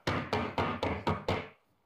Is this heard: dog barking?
no